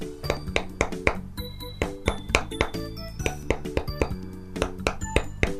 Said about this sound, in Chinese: 说完，啄木鸟就开始用尖尖的嘴巴在桃树爷爷的树干上梆梆地敲了起来。